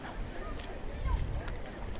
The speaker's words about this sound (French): Voilà, alors par là c'est nul, il y a du vent, il n'y a, pas d'arbre.